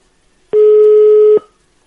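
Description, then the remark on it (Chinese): A single steady telephone ringback tone as a phone call is placed, a mid-pitched continuous beep lasting just under a second, sounding loud and alone with no voices, then falling silent; the call goes unanswered. “稍等一下，接通了，你和他说哈”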